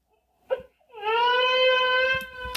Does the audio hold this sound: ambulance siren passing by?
no